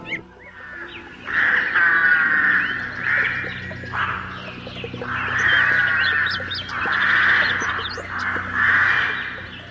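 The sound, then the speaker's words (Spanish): Shrill, piercing toucan whistle calls ring out loud in a run of about five drawn-out bursts, with brief gaps between them and no voices. “al enterarse que su hermano había muerto, llamó a todos sus familiares con un silbido estridente y tan fuerte que, al escucharlo desde diversos rincones de la selva, acudieron todos rápidamente, sospechando que alguna desgracia había ocurrido.”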